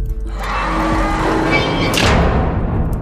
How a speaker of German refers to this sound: Die schweren Tore der Festung schlossen sich wie von Geisterhand.